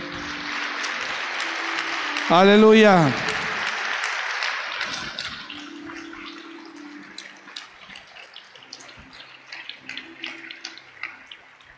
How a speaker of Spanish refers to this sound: ¿Cuántos dicen amén a eso? Denle un aplauso a él.